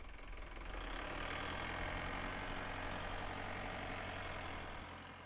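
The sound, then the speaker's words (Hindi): A pickup truck's engine idles and runs steadily, a continuous low rumble with a faint knocking texture that holds for several seconds before easing slightly at the end, as the pickup carries women back to their village. “महिलाएं इसी आशा के साथ पिकअप गाड़ी से गांव वापस आ गई”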